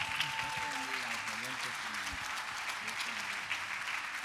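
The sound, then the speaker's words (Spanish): An audience applauds steadily, a dense wash of clapping that fills the whole stretch at a fairly loud level, with a man's voice briefly audible beneath it near the start. “Amén, gloria a Dios, un aplauso.”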